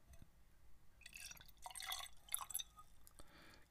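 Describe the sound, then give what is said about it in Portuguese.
Liquid pours from a bottle into a small glass in a few short gurgling bursts, fairly quiet, with bright splashing and faint clinks against the glass. “aquele cálicezinho, né? Do costume.”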